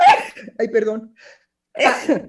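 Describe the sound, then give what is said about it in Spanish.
A single sharp sneeze, triggered by accidentally touching the nose, bursts out at the start, then a person laughs softly and says a few apologetic words, with another short laugh after a brief pause. “Salud, Bueno, como me toqué la nariz accidentalmente, estimulé el estornudo justo en el momento en que estábamos hablando de que la mujer no ama.”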